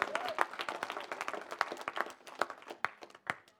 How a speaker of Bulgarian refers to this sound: Да, да, да, може да ръкопляска и за това.